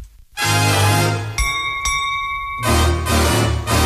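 An old-fashioned pop song's instrumental intro plays loudly, a full band with sustained chords and a bright bell-like chime ringing out briefly in the middle, with no singing yet.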